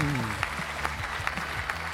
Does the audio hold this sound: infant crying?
no